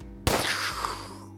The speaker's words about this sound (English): right as it comes out, you hear a gunshot go off.